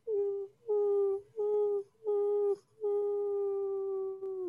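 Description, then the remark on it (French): A voice hums with closed lips in imitation of cat meows, as a vocal exercise to reconnect with one's voice: five steady, nasal tones separated by short breaks, the last held longest. Fairly loud, with no talking. “Alors, typiquement, se reconnecter avec sa voix, moi, je faisais ça avant, c'est euh, faire euh, des petits sons comme des miaulements euh, de chat bouche fermée.”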